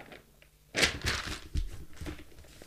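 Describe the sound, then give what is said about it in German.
Pages of a reportage being leafed through to find a sentence to read out: a few papery swishes and rustles following one another after a quiet start, with a soft thump among them, and no one speaking. “Da muss ich jetzt kurz mal blättern.”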